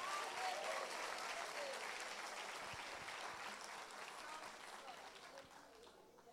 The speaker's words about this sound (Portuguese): Pode aplaudir o Senhor. Ah, aplauda porque é bom.